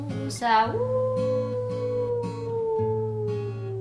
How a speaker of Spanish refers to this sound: Salen a pasear los lobos.